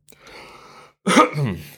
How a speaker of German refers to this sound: So, ich muss mal kurz räuspern.